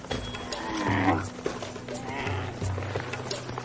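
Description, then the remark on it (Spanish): A camel gives low, rumbling grunts and groans in a couple of drawn-out bursts, with a faint outdoor background and no talking. “Uno de los secretos del comercio árabe, el camello.”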